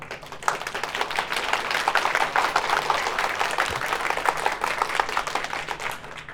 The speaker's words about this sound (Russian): Ну-ка, ребят, поаплодируйте настолько, насколько у вас энергии вот сейчас есть.